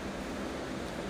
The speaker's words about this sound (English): Now, can you hear that in the background? Because I know you missed it almost as much as I did, but yes, indeedy, that is the sound of the ocean.